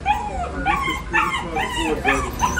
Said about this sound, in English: I heard that poor dog before I even got in to the Solana Beach CVS. I ask you, does this dog sound like he's enjoying his time shopping with mommy?